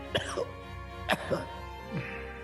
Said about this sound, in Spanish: no se ve muy bien. Tosiendo sangre.